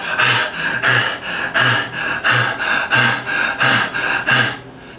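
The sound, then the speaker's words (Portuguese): Fast, shallow panting, about a dozen sharp, breathy inhales and exhales in a steady, rapid rhythm. A person is imitating hyperventilation. The breaths are loud and airy, and there is no talking. “Saiba que quando o seu aluno, você, sua mãe, sua avó, sua tia, sua esposa, seu esposo, seu namorado, enfim, tiver no, com uma hiperventilação, que é isso aqui, ó.”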